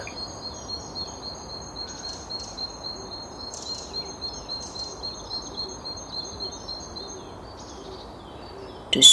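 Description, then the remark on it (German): Birds chirp and twitter steadily around the listener on a warm summer day, a soft continuous chorus of high calls over a low wash of outdoor ambience, with a brief louder rustle at the very end. “spürst die Wärme auf deiner Haut, hörst die Vögel um dich herum zwitschern und bist völlig entspannt und zufrieden mit dir selbst.”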